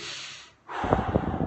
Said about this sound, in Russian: Вот, значит, еще раз, вдох-выдох.